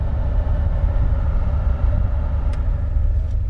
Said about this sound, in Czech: Já už to fouká horký vzduch, takže topení jede.